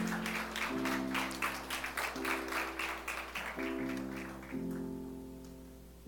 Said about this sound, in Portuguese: Fique de pé e dê uma salva de palmas para o Senhor.